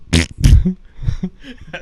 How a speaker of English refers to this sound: Fart. It's the nervous fart. The nervous fart.